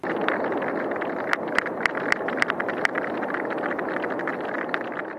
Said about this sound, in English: It seems that there are quite a few sounds in this particular recording. Yes. Again, it's it's another busy one. So everything that sounds kind of like popcorn in the background is other whales echolocating.